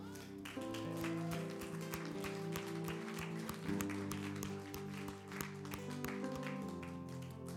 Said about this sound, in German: Lass uns Jesus mal Applaus geben.